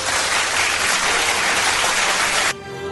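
A steady burst of audience applause for a nominated song, dense clapping at an even level for about two and a half seconds, then cutting off abruptly. No one speaks over it.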